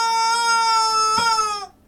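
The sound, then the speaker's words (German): A rubber chicken lets out one long, shrill, reedy squeal, steady and buzzing with a brief hitch near the end before it cuts off. No one speaks over it. “Äh, wie lebt's denn so, sich als Gummihuhn?”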